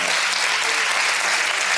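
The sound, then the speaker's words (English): A church audience in Austin claps steadily, a dense, even wash of many hands applauding at once with no pauses, loud and sustained throughout. “Would you clap your hands and agree with that right”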